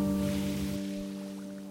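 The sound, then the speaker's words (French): Water laps and sloshes against the wooden hull of a boat floating on Ha Long Bay, a soft washing surge that fades after a moment, with a steady low mechanical hum droning underneath throughout. “Plus tard, en flottant sur la baie d'Along, parcourue de brumes comme un voile de fantôme, je pensais, hormis les flottements d'eau contre la coque en bois et le pétiment de la mousse quand le remous s'étire, le capter enfin.”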